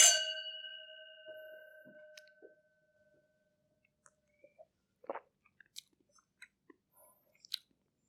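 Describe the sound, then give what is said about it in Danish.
Glasses clink in a toast: a single bright glass clink rings out with a clear, high tone that slowly fades over about two seconds, followed by quiet scattered clicks and small crunchy sounds. “Jamen, øh, skal vi ikke øh, skåle? Ja. Prøve. Skål. Skål.”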